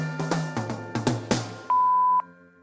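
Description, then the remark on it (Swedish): A series of short electronic tones and clicks, then a steady, fairly loud answering machine beep lasting about half a second, like a voicemail recording starting, with no one speaking. “Men jag tänker att vi gör som vanligt och kollar ifall vi har någon på telefonsvararen.”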